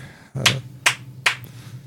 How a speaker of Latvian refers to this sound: Lēni aplausi.